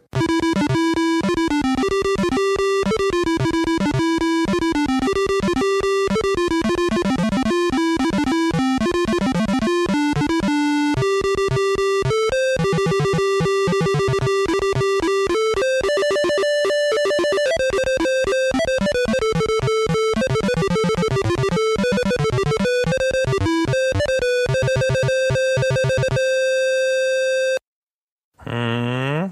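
Bright, buzzy square-wave melody from a PC speaker beeper, playing the PC version of a fast chiptune-style computer game tune with a stepping bass line made by switching notes rapidly to give the illusion of a second track, continuous and loud for about half a minute before cutting off.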